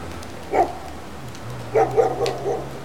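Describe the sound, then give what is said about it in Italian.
Two dogs, a mongrel and a German Shepherd, loose in a garden at Colle Piuccio, Sabaudia, Italy, bark: one short bark, a pause, then a quick run of three or four barks, over a low steady hum with no talking. “fa recuperare i due cani liberi in giardino per riportarli in città, un bastardino e un pastore tedesco.”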